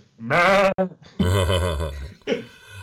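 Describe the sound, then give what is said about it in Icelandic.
A human voice imitates a sheep's bleat three times in a row, loud, each call wavering and shaky, the middle one longest and deepest. “það er rollu og það er, ég veit ekki hvernig kallar rollu Já, já, já, já, akkurat, akkurat Hann er besti rollu kallar í landsins”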